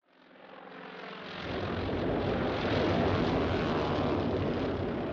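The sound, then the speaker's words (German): Japanese propeller warplanes roar overhead, bombing American warships anchored at Pearl Harbor, Hawaii, on 7 December 1941; their droning engines build quickly from a hum into a loud, sustained rumble that fills the whole clip, with no voices. “Japanische Flugzeuge bombardieren amerikanische Kriegsschiffe, die vor Pearl Harbor ankern.”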